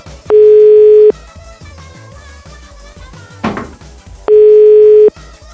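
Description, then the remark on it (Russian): Two long, steady telephone ringback tones, each about a second long and roughly three seconds apart, sound clearly over a busy background with faint clatter and music as a phone call is placed. “А, а давайте я ей позвоню.”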